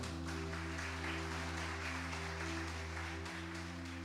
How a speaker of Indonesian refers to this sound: Sewaktu saudara tepuk tangan, surga bergetar. Sewaktu surga bergetar, Tuhan bukakan tingkap-tingkap langit.